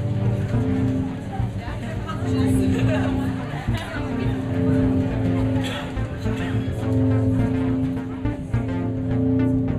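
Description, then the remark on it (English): Busy call center ambience: many overlapping distant voices chatter on phones over a steady low hum, with faint scattered tapping of many distant hands on keyboards mixed into the continuous murmur. “Except for the faint sound of a call center in the background the faint sound of many distant hands tapping on keyboards and many distant voices talking on the phone.”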